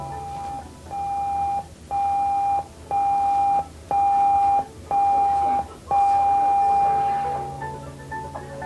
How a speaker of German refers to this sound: Dieses Signal besteht aus sieben kurzen Tutgeräuschen, gefolgt von einem langen Tuten.